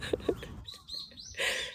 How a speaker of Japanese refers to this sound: あ、今日もね、お弁当を作りながら、鳥の声聞こえますかねあのね、すごいカラスが優勢でですね すごいカラスに負けてましたけども